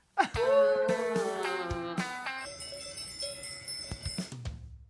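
A short bell jingle introducing the 'Badal da semana' segment: a sudden bright bell strike followed by a few more chiming hits, their ringing overtones lingering and slowly fading over several seconds, with no talking.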